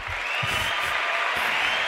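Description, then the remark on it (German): A burst of steady, dense applause, many hands clapping at once into a continuous crackling wash that holds an even loudness for the full two seconds, with no one speaking over it. “Und da würde ich erstmal sagen, Applaus.”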